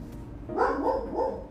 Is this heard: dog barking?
yes